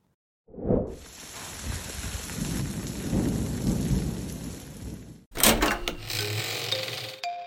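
Steady rain hisses throughout, with deep rolls of thunder rumbling underneath, one sharp boom at the start and longer growls midway; near the end the sound cuts to a brighter, clattering patch of noise.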